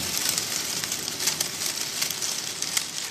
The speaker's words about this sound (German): Und wenn man dieses feinere Band hat davon, ne, das kann man auch einsetzen als Regen.